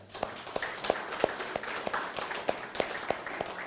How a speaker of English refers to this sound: I'd like to thank also the worship team. Could we give them a clap?